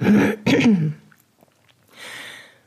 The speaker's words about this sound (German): Ein kurzer Räusper.